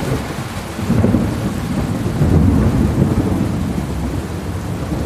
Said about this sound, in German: Ein letzter gewaltiger Donner erschüttert die Nacht. Eine wahre Explosion ist zu hören, wenn die Luft sich um den Blitz zu schnell ausdehnt. Der laute Knall war der letzte für heute.